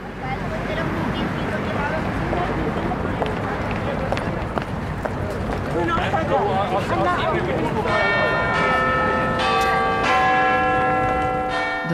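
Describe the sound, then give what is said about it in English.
Busy London street noise and murmuring voices give way to the deep chimes of the Big Ben clock, several loud resonant strikes with long ringing overtones filling the last few seconds. “landmark of London for me is a clock, it's the Big Ben.”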